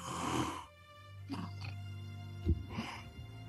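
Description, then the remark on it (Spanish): A voice imitates snoring: a breathy, rasping inhale followed by a low, drawn-out nasal rumble, then a few shorter snorts trailing off. “Y empieza a roncar.”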